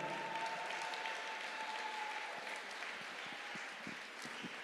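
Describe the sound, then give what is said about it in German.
An audience at a Mother's Day church service in Marzahn claps together in steady, dense applause, a continuous wash of hand claps that holds at a moderate level for several seconds without fading out. “Ja, lasst uns ihm einen Applaus geben.”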